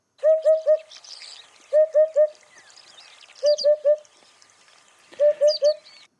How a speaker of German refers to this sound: Ah, so tönt der Vogel, der Wiedehopf. Und genau der hört man jetzt wieder neu auch im Prättigau.